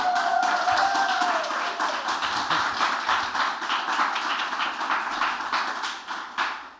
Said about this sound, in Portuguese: Isto é um aplaudir não espontâneo, é pedido, mas funciona, portanto.